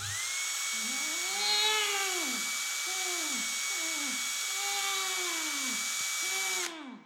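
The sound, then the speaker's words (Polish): A high-pitched drill whines steadily for about seven seconds, boring through a gagged person's cheek into the teeth and gums, while a muffled voice lets out repeated rising and falling moans beneath it, then the drill cuts off abruptly. “Nie ma takiej potrzeby. Po prostu przewiercę się przez policzek.”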